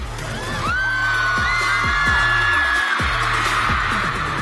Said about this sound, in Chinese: 我们今天在节目一开场听到的狂热的欢呼